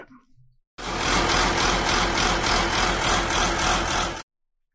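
A large blue farm tractor, not entirely new, runs its engine steadily for a few seconds, a loud diesel rumble with a gently pulsing throb, starting and stopping abruptly with silence around it.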